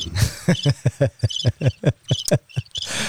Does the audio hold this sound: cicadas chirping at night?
yes